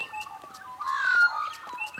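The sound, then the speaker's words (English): An Australian magpie warbles on a warm afternoon on Dharawal country just south of Sydney, a rich, fluting run of gurgling notes that swell in the middle, with faint clicks and outdoor background sounds around it. “Yeah, the beautiful warble of a magpie, one of the most iconic Australian sounds, I reckon.”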